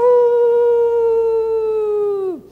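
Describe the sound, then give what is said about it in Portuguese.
A person imitates a dog's howl: one long, loud, steady tone held for about two seconds, ending in a quick downward slide. No other sounds accompany it. “Aí ele resolve falar com o velhinho, ele salta do carro e no meio do caminho o cachorro uiva.”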